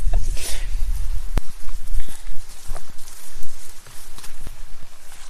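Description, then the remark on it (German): Footsteps walking uphill along a hiking trail at the Hörnle during an herb hike, a steady series of crunchy, scuffing steps with a few sharper impacts, heard alone without any talking over them. “Aber vielleicht gehen wir jetzt einfach trotzdem weiter. Wir wollen ja rauf.”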